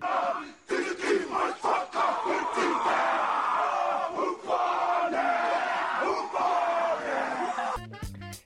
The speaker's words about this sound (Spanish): Pero un buen ejemplo son las jacas de los neozelandeses, que en el campo de batalla están diseñadas para espantar al enemigo, ya sea con las expresiones faciales y los ruidos que hacen.